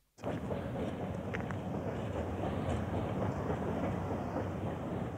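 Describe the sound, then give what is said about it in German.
A small heritage-listed narrow-gauge train in the GDR, running via Jagdschloss Granitz, Sellin, Baabe and Philippshagen to Göhren through coniferous and mixed forest, rumbles steadily along the rails, a continuous low clatter and roll, with faint squeals and a wind-like hiss over the top; no one speaks. “Auch diese denkmalgeschützte Kleinbahn wird von Eisenbahnfreunden aus der DDR betreut.”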